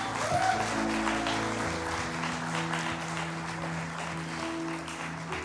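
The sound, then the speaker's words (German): A crowd applauds steadily for several seconds for a volunteer stage helper, dense clapping at a fairly even level, with faint tonal music or hum sustained underneath. “Großen Applaus.”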